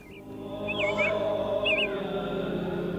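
Short whistled bird chirps ring out in a few quick bursts in the streets of Hollister on the day before the 4th of July, over a steady, droning town background hum, the birdsong clear while the low rumble continues beneath.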